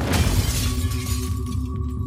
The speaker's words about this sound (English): When she refused to open the door again, police forced their way inside by smashing a window pane.